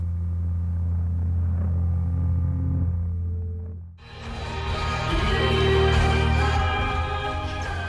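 Slow post-rock music plays with no voices: deep sustained drones hum quietly at first, then swell halfway through into a fuller, brighter wash of layered, ringing instruments.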